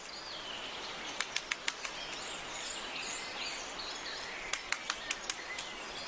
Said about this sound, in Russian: Послушайте, большой пестрый дятел долбит дерево, он хочет достать личинку. И это звучит вот так.